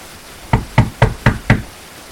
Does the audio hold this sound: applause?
no